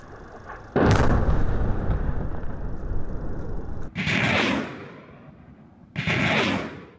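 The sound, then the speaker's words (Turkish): Turkish Armed Forces air strikes hit Syrian regime targets in Idlib: a heavy explosion booms at once and rumbles on, followed by two more sharp blasts a few seconds apart, each with a bright, crackling burst of debris and a lingering roar. No one speaks. “O hedefler havadan böyle vuruldu.”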